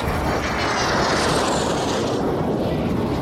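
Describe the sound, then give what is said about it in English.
A classic military aircraft engine runs with a loud, steady, rushing roar that holds constant throughout, without any voices. “We're always CT 4s, Yaks and Nanchangs, and the occasional S 211 Aermacchi jet.”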